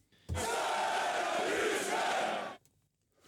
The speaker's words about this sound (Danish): Der er ikke så mange, der er til at råbe sønderjyske på stadions for tiden, men øh, så kan vi trykke på en knap, så er der nogen, der råber.